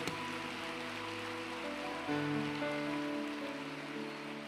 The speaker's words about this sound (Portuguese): Uh! Ai, ah, irmão, faz barulho de verdade. Aleluia! Aplauda Jesus.